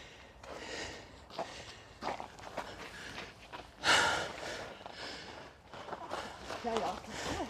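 Audible breathing of a person hanging from a horizontal bar, with several sharp exhales and snort-like puffs, irregularly spaced, mixed with soft shuffling and movement noise; a louder burst of breath stands out midway.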